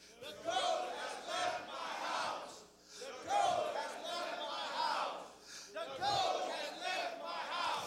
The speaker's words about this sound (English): All the men shout it three times because you need to say it three times.